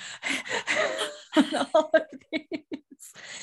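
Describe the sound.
A voice imitates heavy breathing while recording: a run of loud, rasping breaths and huffs that quicken into short, choppy pants, with a laughing edge, and no other sounds.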